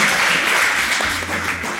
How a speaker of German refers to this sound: Vielen Dank natürlich auch an das Publikum. Applaus nochmal für euch selber. Ihr habt auch sehr, sehr gut mitgerätselt.